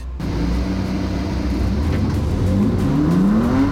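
Several race car engines roar at once, a dense, steady rumble with rising whining tones as the cars accelerate off the start. Loud throughout, with no voices.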